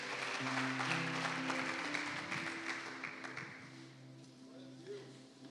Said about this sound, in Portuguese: Aplauda o Senhor.